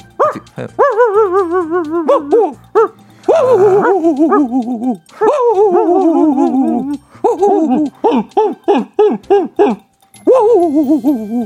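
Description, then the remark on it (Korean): A person imitates a dog on a KBS broadcast: a loud, steady run of yelping barks and whiny howls with a few short pauses. The voice rises and falls in pitch, and no other talking is heard. “최첨단 시스템을 거친 KBS에서 왜 개소리를 직접 내고 있어?”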